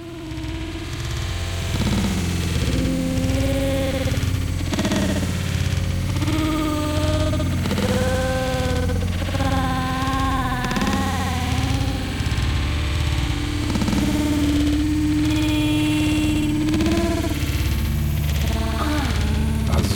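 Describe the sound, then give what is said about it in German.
Heavily distorted playback of a broken record, loud and unbroken throughout, with wavering melodic tones smeared under a thick layer of buzzing, crackling noise. “Klingt auf jeden Fall, als wäre die Platte sehr kaputt.”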